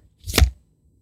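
A recycled plastic festival tray is handled, giving one short, crisp crackling crunch that swells and fades within half a second, with silence around it and no voices.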